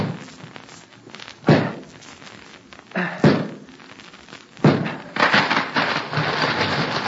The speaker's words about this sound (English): Look out. The tree's gonna fall that way. Let her come.